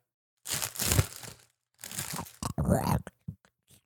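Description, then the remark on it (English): Crisp crinkling and tearing of a chocolate candy wrapper being opened, coming in a couple of noisy bursts with short pauses between, followed by a few small rustles. “I'm going to open one of these things.”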